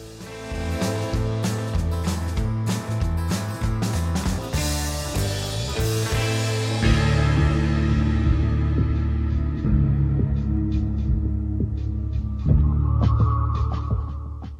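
A music track plays loudly throughout, with a steady driving beat, strong bass notes and dense harmonic instrumentation; the arrangement thins slightly in the second half but keeps a continuous rhythmic pulse.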